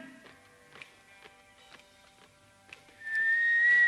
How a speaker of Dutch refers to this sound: Je fluit iemand er doorheen. We hebben dat nooit meegemaakt. Dat iemand er doorheen fluit.